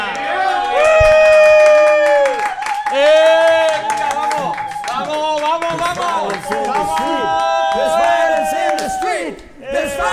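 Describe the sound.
A crowd of voices bellows a rousing battle cry, long sustained yells rising and breaking in waves, loud and close, with scattered clapping underneath throughout.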